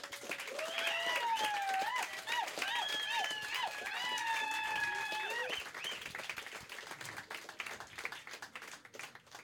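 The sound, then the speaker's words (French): An audience breaks into sustained applause for the evening's guest, dense rapid clapping throughout, with loud overlapping cheers and whoops rising above it for the first half before the clapping carries on alone. “J'aimerais ça qu'on lui donne une grosse main d'applaudissement.”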